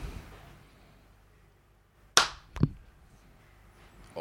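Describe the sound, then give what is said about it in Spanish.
A sharp hand clap rings out after a quiet stretch, followed half a second later by a duller, softer hit, with no one speaking. “el aplauso bueno, weón.”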